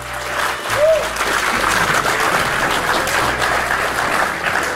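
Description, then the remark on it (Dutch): A live audience, seated well apart from each other under corona-safe conditions, breaks into sustained applause, a dense, steady wash of clapping at a loud, even level throughout with a faint murmur of voices beneath. “En nu het kan, laat ons er maar eens applaus op volgen. We hebben terug live publiek, volassen.”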